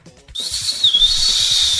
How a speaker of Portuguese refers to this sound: E cara, o apito, o apito falhou, calma aí. Entrou grama dentro do apito.